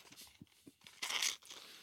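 Crisp crunching as someone bites and chews crunchy chocolate snack pieces, with a few short cracks building to a louder, denser burst of crunching before trailing off.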